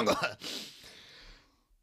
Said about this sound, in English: and then he suggested that the sound of clearing your throat was a good name.